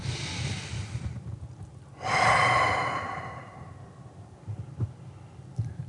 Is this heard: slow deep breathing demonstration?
yes